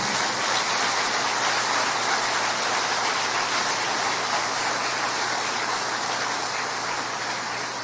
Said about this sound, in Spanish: Tenemos un Dios perfecto que merece otro aplauso de alabanza.